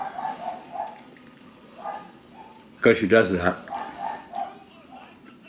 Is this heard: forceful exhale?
no